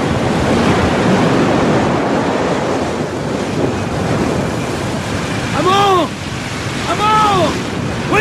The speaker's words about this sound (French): Et, tel Ulysse, il se fait Attacher un un mât pour bien remplir les yeux de l'émeute de la mer et les oreilles aussi.